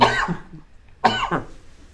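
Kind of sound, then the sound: human body sound, sneeze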